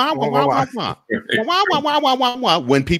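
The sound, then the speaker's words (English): A voice imitates the muffled, trombone-like wah-wah babble of Charlie Brown's teacher, a run of nonsense syllables with wavering, bending pitch, loud for about three seconds. “It's like it's like Charlie Brown's uh, teacher.”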